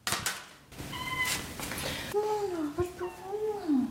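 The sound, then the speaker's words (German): A domestic cat meows as someone enters a flat and it comes along the hallway, first a short chirping call, then a long, drawn-out meow that wavers up and down in pitch, with some soft rustling in the background. “Kaum ist die Wohnung betreten, kommt die Katze den Flur entlang.”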